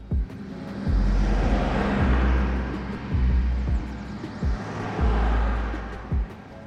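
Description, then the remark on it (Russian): Dense road traffic roars steadily along Primorsky Prospekt, a busy avenue forming an embankment of the Bolshaya Nevka, with low engine rumble and repeated heavy thumps as vehicles pass, no voices present. “из немецких кварталов предлагаю по улице Оскаленко спуститься снова к Приморскому проспекту, являющемуся как бы набережной Большой Невки, правда очень шумной и нагруженной автомобильным потоком.”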